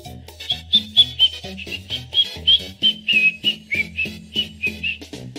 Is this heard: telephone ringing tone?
no